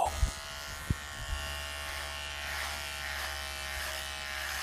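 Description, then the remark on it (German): An electric shaver buzzes steadily throughout, a dense, bright hum with a low drone underneath, preceded by a few soft clicks and knocks as it starts up. No one speaks. “Aber ist ein Elektrorasierer, ne?”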